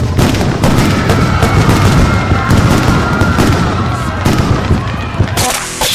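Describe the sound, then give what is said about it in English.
Rapid, dense bursts of firecrackers dumped into a roaring campfire pop and crackle without pause, loud, with a steady tone running underneath and a brief lull near the end. “do not, and I mean do not, under any circumstances, start a mess roaring fire, then dump about 200 bucks worth of firecrackers into it without telling any of your fellow campers.”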